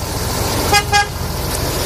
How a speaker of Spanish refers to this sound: Que suene el claxon.